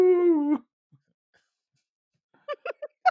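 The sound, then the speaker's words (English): A person imitates a wolf with a brief, steady howl that cuts off abruptly; after a quiet pause come four short, sharp yelping sounds. “Like I said, like I said, because no, you sound like a little wolf.”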